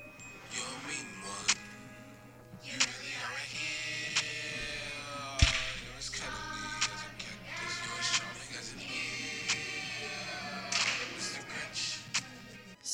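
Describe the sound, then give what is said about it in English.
A rap remake of a Christmas song made for an animated Grinch movie: rhythmic vocals ride over a steady low drone, punctuated by sharp, snapping percussion hits at regular intervals, fairly loud throughout. “Um, I think it's a really cool play on the old version. So here is a clip.”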